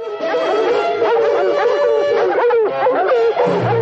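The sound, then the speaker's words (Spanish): A pack of hunting dogs chasing a fox barks and bays together in a loud, continuous clamor, many overlapping yelping and howling voices filling the whole stretch with no pause. “Adelanta a los perros, se coloca sobre el zorro, lo coge por el rabo y lo monta a su grupa.”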